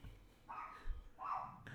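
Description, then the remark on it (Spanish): A dog barks twice in the background, two short, fairly faint barks spaced about half a second apart, with no talking over them. “es que ese perro no sé qué onda.”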